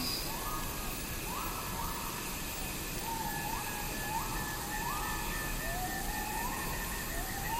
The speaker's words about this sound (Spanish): poniendo atención a cada uno de esos cantos preciosos los insectos y los pájaros, toda la vida nos rodea aquí en la selva.